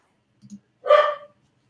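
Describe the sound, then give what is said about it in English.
A dog lets out one sharp, fairly loud bark, preceded a moment earlier by a couple of faint, low huffs. No one speaks. “Do you guys hear Jean Philippe's dog?”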